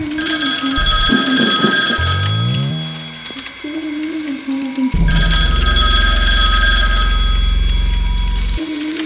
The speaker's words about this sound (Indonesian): Tapi tidak lama setelahnya, suara telepon berdering kembali terdengar.